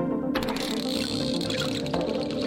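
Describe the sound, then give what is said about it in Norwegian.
Video game sound effects for laying down blocks: a couple of sharp clicky thuds over a steady, dense, rushing background texture, fairly loud, with no talking. “Det er når du legger ned en blokk, f.eks.”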